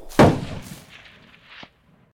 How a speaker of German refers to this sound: Und dann hörte ich einen Schuss.